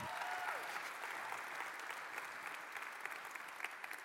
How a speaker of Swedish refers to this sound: Vi ger en stor applåd till dagens konfirmander på scenen.